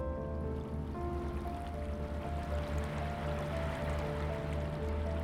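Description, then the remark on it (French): Steady rushing of an emerald-coloured river flowing continuously at an even level, with faint sustained tones layered underneath and no voices. “rivière couleur émeraude.”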